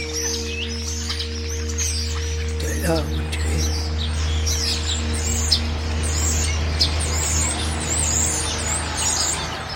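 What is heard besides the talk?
birds chirping and singing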